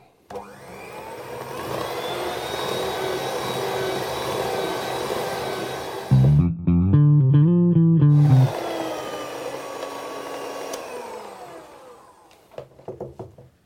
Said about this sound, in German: So, ich äh, lasse jetzt die Küchenmaschine ein bisschen arbeiten und dann hören wir uns gleich auf der anderen Seite wieder.